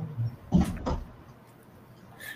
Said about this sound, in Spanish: La Gertrudis. Está rascando la, la puerta, pero.